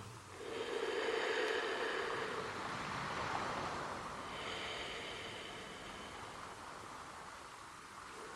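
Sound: sea waves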